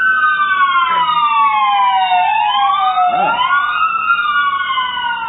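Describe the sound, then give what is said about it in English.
A fire truck siren wails loudly and continuously outside, its pitch sweeping up and down in overlapping tones as it passes. A brief vocal sound is heard beneath it. “Yeah, there was fire truck the first time.”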